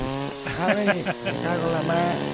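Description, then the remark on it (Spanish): A voice imitates a motorcycle engine revving, a buzzy drone whose pitch rises and dips in a few quick surges before settling into a steady hum. “alegría de moto.”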